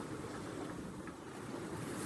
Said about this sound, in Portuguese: Apontei para ela, tentando avisá-lo mas ele não ouviu. O maldito ruído do mar.